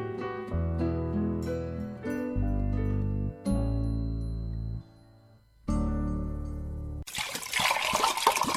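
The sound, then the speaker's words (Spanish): A few seconds of sustained musical chords give way to a short burst of hot water being poured for mate, a hissing, splashing stream that runs until the end. “Ya calentamos más agua.”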